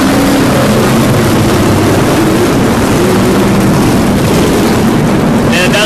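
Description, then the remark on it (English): Loud, continuous engine roar with rumbling low tones and shifting pitch as powerful Trans Am race cars pass one after another, coming out of the pits and going into pit row, their sound swelling and fading in a dense wash. “I got them coming out of the pits, going into the pit row. Wow. It's like swimming with Trans Am cars, man.”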